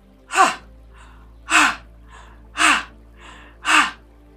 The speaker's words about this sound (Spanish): Nosotros tenemos una respiración también por la boca que absorbemos y botamos.